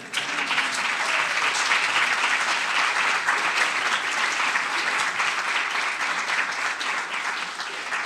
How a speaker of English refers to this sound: So let, us have another round of applause for Dean Hempton.